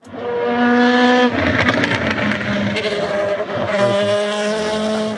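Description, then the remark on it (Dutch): A loud LMP2 race car engine screams at high revs at a top speed of around 330 km/h on a straight, its steady whine broken by a brief rough shift before settling back into a sustained, droning pitch. “Eh, ik denk dat we zo'n beetje aan de 330 komen. 335 misschien. Nice, en dat klinkt zo hè?”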